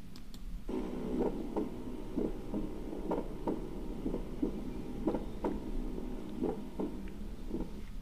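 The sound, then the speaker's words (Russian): A heartbeat with a split first heart sound, played in a lecture on heart sounds, each beat opening with a quick doubled thump, repeating steadily at a moderate pace over a low constant hum, with no talking. “Снова, пожалуйста, расщепление первого сердечного тона.”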